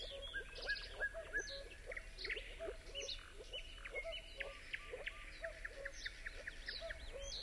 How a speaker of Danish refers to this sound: høre klokken 10 kan vi høre fuglen.